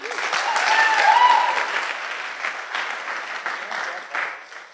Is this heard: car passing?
no